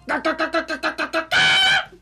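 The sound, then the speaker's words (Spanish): A voice imitates a mother hen clucking as she comes looking for her chick: seven quick, evenly spaced clucks followed by one longer, drawn-out cluck, fairly loud. “Su corazón saltó de alegría porque se acercaba mamá gallina buscando al pollito travieso.”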